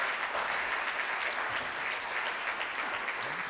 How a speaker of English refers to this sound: Look, could we applaud one more time for everyone? It's just fabulous.